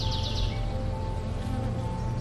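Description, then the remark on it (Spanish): A steady, dense buzzing of many bees among yellow flowers near a hive, pollinating, fills the space continuously, moderately loud, with a constant low drone and no voices. “El zumbido de abejas”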